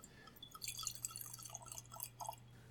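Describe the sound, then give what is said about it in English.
Sake is poured into a wine glass in a steady, gurgling trickle with small splashy bursts, quiet, with no talking over it and a faint low hum in the background. “I have a very interesting sake wine Ooh. glass here. I'm going to pour this in.”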